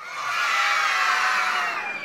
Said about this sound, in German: da jubeln dann alle und freuen sich voll für das Kind, das den Lobbrief bekommt. Und die Stimmung ist einfach richtig gut.